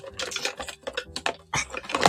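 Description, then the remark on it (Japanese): Irregular clattering and rustling as someone rummages through a bag to pull out tangled wired earphones, with quick clicks and scrapes of small plastic parts and cable being handled. “ガチャガチャしてるでしょちょっと、ちょっと、こんがら、有線のね、有線のやつを今出そうとしてます。”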